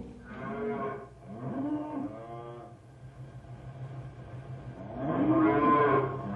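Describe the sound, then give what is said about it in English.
A large herd of cattle, herded by one rider, moos in overlapping, drawn-out calls, one after another, with a louder low at the end over a steady background rumble of the herd. “Rough work, one man riding herd on this many cattle.”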